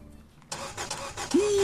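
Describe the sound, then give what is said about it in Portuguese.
A car starter cranks in quick, rhythmic bursts without the engine catching because the battery is dead, then a steady electronic tone sounds at the end. “fiquei sem bateria logo agora.”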